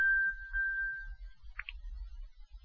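A steady high electronic beep holds for over a second, followed by two short rising chirps, an Apple Watch playing its find-device alert sound, with low rumbling handling noise underneath.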